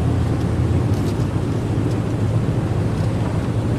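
A hovercraft engine drones steadily as the craft crosses the sea between islands toward Hailuoto, a loud, continuous low rumble with a broad roaring wash and no pauses.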